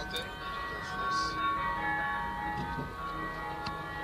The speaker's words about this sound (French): pendant que les cars remontent lentement les Champs-Élysées, les cloches des églises sonnent partout en France.